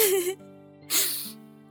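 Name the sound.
person crying and sniffling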